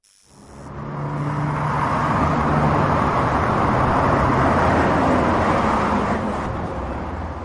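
Steady roar of traffic on a busy road in Modderfontein, eastern Johannesburg, South Africa, engines rumbling and tires hissing in a dense, continuous wash of noise that swells up at the start and holds loud throughout, with no one speaking.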